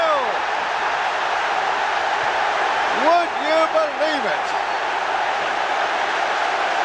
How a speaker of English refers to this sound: From one end of the field to the other, the crowd are in raptures. The England players too.